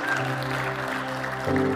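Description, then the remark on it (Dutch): A crowd applauds steadily for a couple of seconds, a dense wash of clapping over sustained musical tones that shift pitch near the end. No one speaks. “Kom maar, geef die mensen een applaus.”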